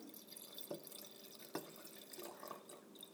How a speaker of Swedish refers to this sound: Ja, ni hör ju själva, kära lyssnare. Mm. Det är så här det går till i Spanien. Ja. Man hör ljudet av vin som hälls upp och sen hör man ekot av ljudet av vin som hälls upp.